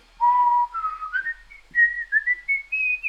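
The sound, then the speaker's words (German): A person whistles a relaxed, wandering tune alone, the clear pure notes stepping gradually upward in pitch over a few seconds, with short phrases and brief pauses between them. “Pfeif innerlich ein, äh, ein Gesumm ein Liedchen, äh, weiß ich nicht, was ist ein, entspannt, ein entspanntes Liedchen?”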